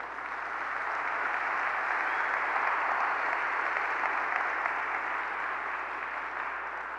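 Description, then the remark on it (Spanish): An audience gives a round of applause to Christ, clapping steadily for several seconds, a dense, even wash of many hands at a sustained moderate volume that tapers slightly at the end, with no voices standing out. “Vamos a darle un aplauso a Cristo.”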